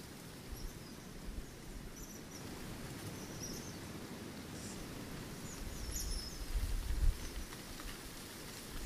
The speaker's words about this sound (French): Ah, c'est des sortes de mini perroquets. Trop oh, rigolo. Et oui, ceux que j'appelle les mini perroquets, les petits oiseaux qu'on entend là, en fait, c'est des vinis.